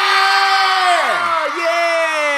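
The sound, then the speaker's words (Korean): A loud, steady crowd roar of shouting and cheering fills the whole two seconds, with some voices whooping and one cry sliding downward in pitch midway, answering a radio host's call to shout. “자 듣고 계신다면 소리 질러!”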